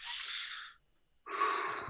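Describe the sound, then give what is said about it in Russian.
A deliberate, deep breath drawn in to demonstrate calming down before speaking, then a brief silence and another long, breathy rush of air. Loud and airy, with no talking. “И дальше, опять-таки, начинать всегда с того, что если вы понимаете, что начинаете суетиться, дышите, дышите, прямо вот, понимаете, дыши.”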